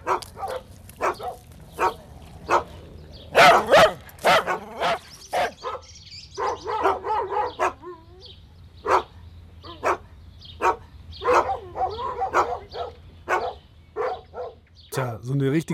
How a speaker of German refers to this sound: richtige Hundemusik ist es.